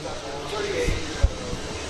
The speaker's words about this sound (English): The, the train coming across here, the across the tracks here at Hart Park off the State Street.